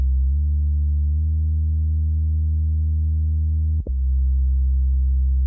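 A deep, sustained synth bass tone hums steadily and loudly, with a brief pitch glide near the end before settling back into the low drone. No voices. A sub bass part made from demo MIDI.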